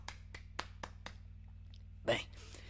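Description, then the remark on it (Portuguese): A handful of quick, evenly spaced hand claps, about five sharp slaps in a steady rhythm, followed after a pause by a single louder, broader burst of sound over a low steady hum. “Uma salva de palmas para mim que eu quero.”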